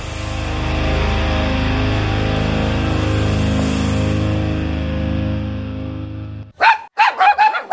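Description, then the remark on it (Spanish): A sustained droning musical tone fades out, then a dog barks four or five times in quick succession, loud, with short gaps between the barks. “Espera, que te lo traduzco. Tu perro te dice que quiere Lenda”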